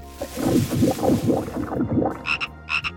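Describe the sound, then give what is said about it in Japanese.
A frog on a mountain, about to be eaten by a large snake, croaks in a quick, steady series of throaty pulses, fairly loud, followed by two brief higher-pitched chirps near the end. “その後女が山を歩いていると大きな蛇がカエルを食べようとしていた”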